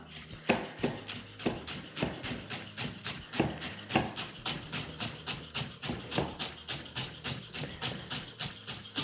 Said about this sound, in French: Et maintenant, je vais hacher mon bouquet de persil plat tout fin, tout fin.